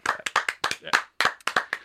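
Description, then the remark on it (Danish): A single person clapping their hands as a round of applause for Ubisoft, a quick run of about a dozen sharp, crisp claps at a slightly uneven pace, with no talking. “De får det, en klapsalve.”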